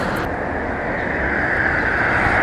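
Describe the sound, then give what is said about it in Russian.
Steady, loud roar of street traffic at a bus stop, the louder noise from buses stopping there and the quieter noise from passing cars, a continuous rumble with no voices. “То, что громко шумит, это останавливающиеся здесь автобусы. А то, что тише, это проезжающие машины.”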